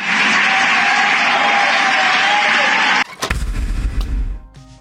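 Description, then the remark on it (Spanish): Loud, dense applause from a large group of Morena party deputies, a steady roar of clapping that runs for about three seconds before cutting abruptly to a lower, rumbling mix of sounds. “Los diputados morenistas aplaudiendo a rabiar.”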